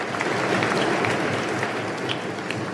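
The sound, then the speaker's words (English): A crowd applauds steadily for a member of the event's technical management staff, a dense wash of many hands clapping at an even, sustained level throughout, with no voices standing out above it. “Please direct your applause in that direction.”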